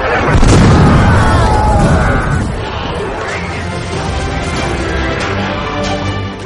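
A single heavy cannon shot aboard a ship, its cannonball flying through the air, opens with a loud, low boom that lingers for a couple of seconds, then settles into a steady rumbling, noisy wash with a faint murmur of voices.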